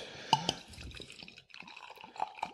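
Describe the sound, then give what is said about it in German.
Wheat beer glugs and splashes as it is poured into a glass, with a couple of bright clinks of glass early on and bubbling, gurgling liquid throughout. No one speaks. “Na das, gut, aber wir gucken mal an, wie uns das, ähm, äh, Weizen, das Roh, aufpassen, ne, beim Einschenken.”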